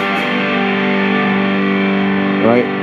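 A heavily distorted fuzz guitar G chord, played through a fuzz pedal on its Ram's Head setting, rings out thick and sustained, with a brief fresh strum near the end swelling the saturated, buzzing tone.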